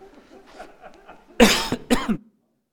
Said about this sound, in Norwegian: Det er bare godt å hoste eller noe sånt.